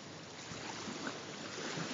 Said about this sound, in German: Wenig Welle. Jetzt ist viel Welle. Viel Welle. Viel Welle.